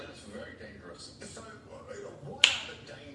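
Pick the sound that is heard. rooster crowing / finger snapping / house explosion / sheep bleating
finger snapping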